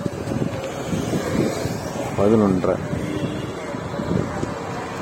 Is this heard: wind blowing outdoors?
yes